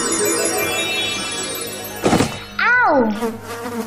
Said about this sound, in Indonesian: Riko menabrak kumbang yang terbang di depannya.